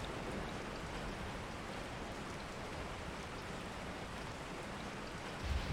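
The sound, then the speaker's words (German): Steady, gentle rain falls in a continuous soft patter, dense and even throughout, with no voices present. “Der sanfte Regen fällt in rhythmischen Tropfen auf deine Haut”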